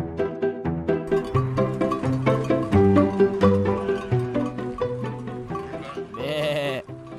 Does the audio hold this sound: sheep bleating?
yes